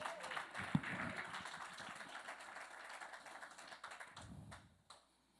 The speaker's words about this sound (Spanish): Dele un aplauso, Señor.